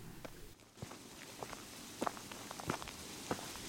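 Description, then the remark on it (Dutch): Footsteps walk steadily across outdoor memorial grounds toward two old train wagons on the site, a series of soft, evenly spaced treads over a quiet background hiss, with no talking. “We lopen nu naar twee oude treinwagons op het terrein.”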